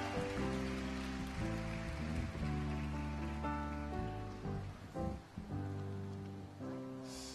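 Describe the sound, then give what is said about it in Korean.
A crowd applauds steadily over loud instrumental music with sustained chords, welcoming a children's worship team at an RCF worship event; the clapping forms a dense, hissing wash beneath the melody for several seconds. “다음 언약의 바통을 이어받아 더 큰 하나님의 역사를 이어갈 우리 어린이 몸찬양 팀, 우리 랩런트들을 우리 박수로 모시겠습니다.”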